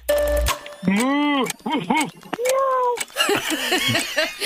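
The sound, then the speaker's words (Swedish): A person's voice imitates three animal calls in quick succession, ending with a cat's meow; several loud, rising-and-falling vocal cries follow one another with short gaps. “säg tre djurläten.”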